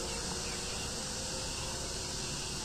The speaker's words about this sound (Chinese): 现在我录音的这个环境呢，非常的嘈杂，你可以听到知了的叫声，听到各种鸟在叫，远处的一些汽车的声音